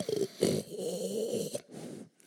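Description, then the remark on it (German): A voice mimics loud snoring, imitating the biblical Eli, Samuel's mentor, snoring next door, with two long rasping, throaty inhales followed by a softer, shorter snort, with no other talking. “Trappelt mir auf seinen kleinen Kinderbeinen Nebenan, da schnarcht Eli.”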